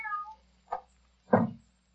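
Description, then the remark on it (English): A cat gives a short, falling meow, followed by two brief, rougher cat sounds, with no talking, as the cat is slipped into a bedroom through a softly opened door. “Slip the cat in, so.”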